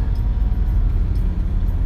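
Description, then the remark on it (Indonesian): A loud, steady low rumble of a bus engine with a broken exhaust, with a rough, throaty growl that stays constant throughout, no voices present. “eh, tar lu anjing di bis berisik banget”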